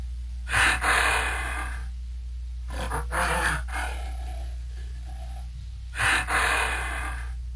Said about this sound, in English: that is the lowland gorilla.